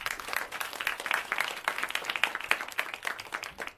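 An audience applauds steadily, many hands clapping in a dense, continuous patter that holds at an even level for several seconds, with no voices on top.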